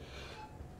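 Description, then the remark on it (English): A single quick sneeze, a short breathy, nasal burst that sounds muffled and fairly quiet, with no talking around it. “Bless you.”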